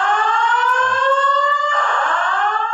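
A fire alarm blares continuously, a loud, steady electronic tone that sustains without pause for the whole stretch, with a slight shift in pitch partway through.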